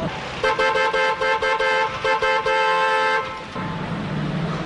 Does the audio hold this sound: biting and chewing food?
no